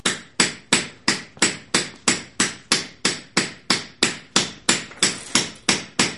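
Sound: hammer blows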